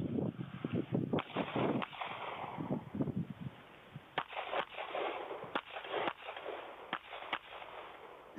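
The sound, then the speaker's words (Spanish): Gunshots crack out one after another in an irregular series during a shooting drill, about a dozen sharp reports over a rumbling, echoing background, with no one speaking. “aquí de nuevo lo vemos, que se le, se le dijo, este espacio es muerto, aquí tú tienes ocho tiros más.”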